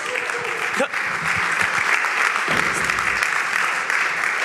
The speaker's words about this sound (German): Also, da haben wir es. Vielen Dank. Gebt ihnen einen Applaus.